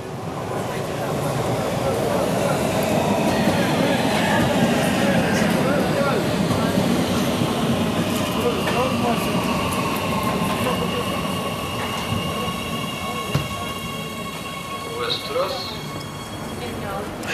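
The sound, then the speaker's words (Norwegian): A subway train rumbles steadily through a metro station, loud, with high metallic whining tones gliding over the roar and faint voices in the background. “Nå er vi på vei til T-banen.”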